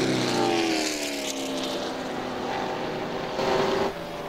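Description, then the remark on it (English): A loud race car engine roars by on the last lap at the 0.522-mile Jennerstown Speedway oval, car number 75 coming through turn four to take the checkered flag, its whining pitch sliding lower as it passes, with a steady rumble of more engines continuing behind it and no voices. “Coming through turn four the last time to take the checkered flag.”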